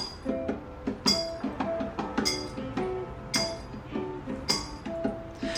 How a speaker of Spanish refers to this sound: Para resumirle las cuentas, mi querido público, esto que suena es conocido como los War Songs o Spiritual Songers, ya, canciones de trabajadores para comunicarse entre ellos, expresiones de sus creencias, códigos de los campos de algodón, barcos,